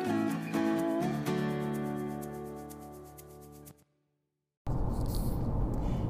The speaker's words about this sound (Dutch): Nou, zoals je hoort, ik zit weer in de auto en ik ben op weg deze keer bij, naar een etentje van mijn moeder.